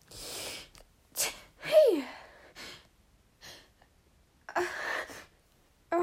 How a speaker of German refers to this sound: Ah, sorry, ich musste niesen. Deswegen war es jetzt auch einmal so still. Weil es ist immer unangenehm, aber ich kann nicht sprechen. Weil ich weiß, dass ich bald niesen muss. Das ist so unangenehmes Gefühl.